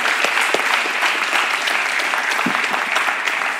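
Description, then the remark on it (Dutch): An audience applauds steadily throughout to honor a man, a dense wash of many hands clapping with no pauses and no voices standing out. “Dan gaan we voor klappen.”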